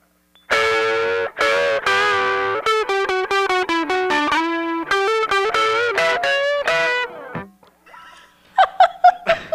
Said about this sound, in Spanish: Te digo que estoy desactualizado. O sea, neta, llevo dos días que volví a agarrar la guitarra, así que discúlpenme.